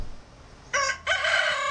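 A rooster crows loudly, a short harmonic call followed by a longer, drawn-out cock-a-doodle-doo, with no voices present.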